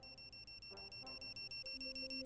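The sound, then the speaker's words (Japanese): A bug detector bought in Akihabara, reacting to radio waves from an eavesdropping device hidden inside a power outlet, gives off rapid, evenly spaced high-pitched electronic beeps, a steady pulsing chirp about ten times a second, with faint low tones wavering underneath. “盗聴器が発する電波に反応してわずかに音声が鳴っている”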